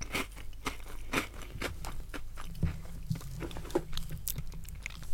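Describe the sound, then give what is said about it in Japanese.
Crunchy chewing of Marie biscuits, a steady run of crisp, irregular bites and crackles repeating over several seconds, fairly quiet, with no talking. “おせんべいとこのマリーがあるんで今もう寝る前だからさマリーマリーを食べて寝ようと ちょっとおせんべいっていうのもなんかあまりにも重すぎるかなと思って大して変わんないって話もありますけどねこれ美味しい”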